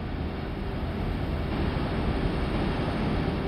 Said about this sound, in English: In 2005, the Huygens space probe recorded audio as it descended through the thick atmosphere to the surface. What you're hearing is incredible the sound of the winds from a tiny moon nearly a billion miles away.